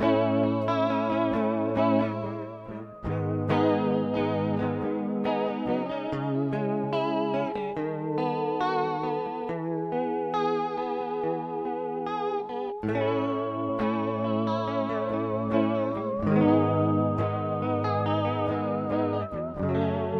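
A rock band plays a song with sustained, heavily effected guitar chords carrying a chorus-like shimmer and some distortion, loud and continuous throughout, with shifting chord changes and no voices.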